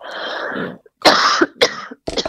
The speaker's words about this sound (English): Sorry, I'm gonna cough.